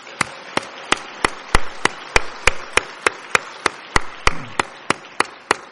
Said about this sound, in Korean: 아, 모든 성도님들 서로 격려하고 감사하는 의미에서 다시 한번 박수 한 번 올려 주겠습니다.